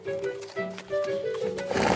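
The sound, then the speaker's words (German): A horse whinnies in a few loud, quavering bursts as riders ride through a forest, with hooves clip-clopping underneath. No one speaks. “Ihr reitet durch den Wald Richtung von.”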